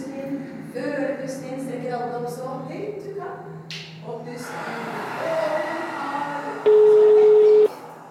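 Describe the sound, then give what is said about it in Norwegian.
A person talks over a steady low hum, then one loud, flat telephone ringing tone of a call to a ski festival at Holmenkollen sounds for about a second, clear, as if heard through a handset. “Jeg starter med begynnelsen og ringer til Skifest Holmenkollen.”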